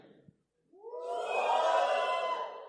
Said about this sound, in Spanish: ¿Cuántos están, cuántos son, tienen más de 30 años? Den un fuerte grito de júbilo. No, fuerte, fuerte. Fue un fuerte grito de los de más de 30.